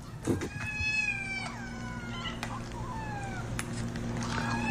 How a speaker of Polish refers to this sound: Ten chór kotów mówił, że że one są wystraszone.